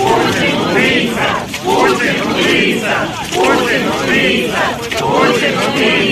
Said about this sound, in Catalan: Putin assassí van cridar els seguidors de Navalny o Rússia serà lliure, també van corejar mentre la policia s'ho mirava.